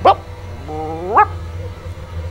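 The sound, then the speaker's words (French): A voice imitates an anxious dog: two short, sharp yips about a second apart, with a thin rising whine between them, over a low steady hum. “Il jappe un peu, il n'aboie pas, il fait”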